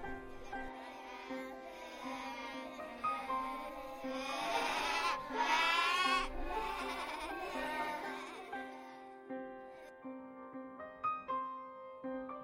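Sheep bleat repeatedly and loudly, several wavering calls overlapping in a dense cluster, with a brief fuller chorus in the middle before a few sharper, scattered bleats trail off.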